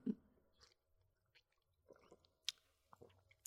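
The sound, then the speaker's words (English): Quiet swallowing and wet mouth noises as two people gulp martinis, with a few soft clicks and smacks spread across a few seconds and no talking. “I feel like I just heard every gulp both of us took in my headphones”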